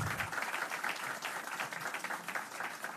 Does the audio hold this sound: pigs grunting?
no